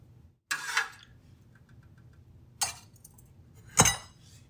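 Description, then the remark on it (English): A hot ceramic ramekin clinks and scrapes as it is lifted out with a little spatula: three sharp, bright knocks at uneven intervals, the last one loudest, over a steady low hum with no talking. “So what I do is I use a little spatula and I put it under the ramekin And then I just lift it out and I have a, a hot pad to just put it, um, to help hold it.”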